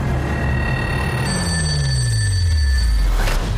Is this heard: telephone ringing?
yes